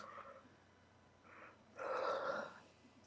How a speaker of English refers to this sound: Sorry, I must yawn. Ugh.